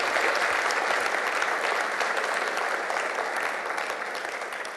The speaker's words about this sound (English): A round of applause. Thank you so much.